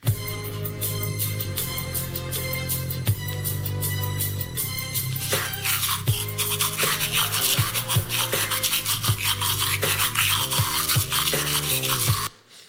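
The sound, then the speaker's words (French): AI-generated bristly scrubbing and rasping toothbrush sounds, shaped into a sung song melody with steady, rhythmic strokes, loud throughout, growing noisier and busier midway before stopping abruptly near the end. “Là, par exemple, une brosse à dents qui chante ….”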